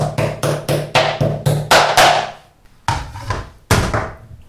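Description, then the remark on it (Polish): A meat mallet pounds beef, each side first with its large teeth and then its small teeth, in a quick run of about seven dull, thudding blows, then after a short pause two more heavy strikes, each with a brief ringing decay and no talking. “tak jak mówiłam, najpierw każdą stronę dużymi zębami, później małymi zębami tłuczka.”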